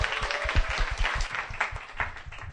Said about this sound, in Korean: 앞으로 나와주십시오. 박수로 환영해 주십시오.